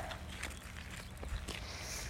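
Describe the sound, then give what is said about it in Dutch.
Soft barefoot footsteps crunch and scuff across stony ground as people walk over a small fence, a few uneven steps spread out over about two seconds with a low rumble of background noise and no voices. “Wij lopen even over een hekje heen.”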